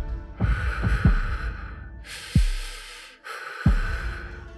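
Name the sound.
heavy breathing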